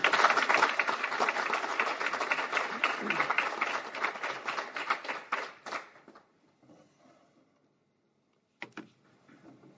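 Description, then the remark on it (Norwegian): A crowd applauds steadily for about six seconds while a speaker comes up to the front. The clapping is a dense wash that thins and fades out, followed by near silence with a few faint sounds. “Eh, så kan vi ikke gi han en applaus mens han eh, kommer opp her nå.”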